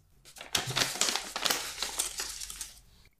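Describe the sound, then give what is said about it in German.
Crinkly paper rustling and crackling for about two and a half seconds as a card is drawn from an envelope holding many dog-related terms, a dense run of dry crisp rasps and crumples, fairly quiet, with no voices over it. “Ich habe hier einen Umschlag, in dem ganz viele Begriffe zum Thema Hund drinne sind und du darfst gerne einmal einen ziehen.”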